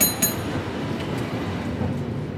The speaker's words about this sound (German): San Francisco Stadtmitte. Ein Cable Car, die legendäre Straßenbahn der Stadt, kämpft sich gerade die sehr steile Powell Street hoch.